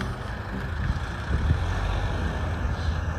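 A car rumbles along a path that normally has no traffic, its low engine drone steady and loud for a few seconds as it passes, with no talking.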